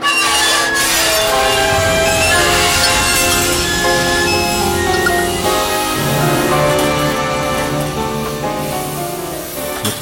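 A train brakes abruptly: loud metallic screeching of the metal brake shoes on the wheels, with sustained, shifting squeal tones over a heavy rumble, while dishes and glassware rattle, clink and crash throughout. The noise stays intense for the whole ten seconds.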